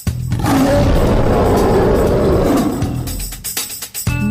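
A lion lets out one loud, deep, rumbling roar that lasts nearly three seconds, close and forceful, then tapers off into a few scattered thumps and crackles.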